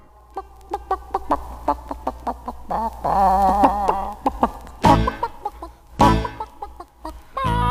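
Breeding birds cluck and call in a busy run of short chirps and squawks, with a denser flurry midway and a couple of louder rustling bursts near the end. No one speaks.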